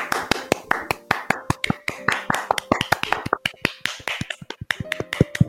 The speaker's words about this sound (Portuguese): E olha que legal, você nos acompanhou até agora. Você merece nossas palmas. Vamos lá, gente, palmas!